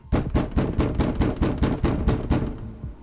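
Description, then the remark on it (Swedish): A rapid, steady series of heavy knocks on a door early in the morning, about a dozen loud thuds in quick rhythm with no voices. “Men tidigt på morgonen väcks du av knackningarna på dörren.”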